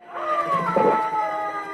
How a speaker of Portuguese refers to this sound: Outro gato!